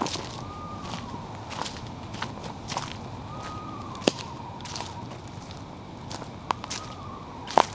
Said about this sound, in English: This is an eastern screech owl. I'm probably not going to see it. We can really hear it. And that may sound distant, but what it's actually just being quiet. It's throwing its voice really well.